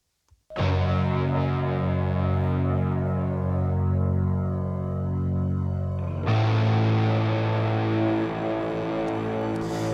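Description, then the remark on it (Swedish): A loud, dense wall of distorted industrial noise music drones steadily with thick low rumble and harsh layered tones, then abruptly shifts to a brighter, grittier texture partway through. No voices are heard. “Just det, det är någon noise tomte från England med och sjunger också,”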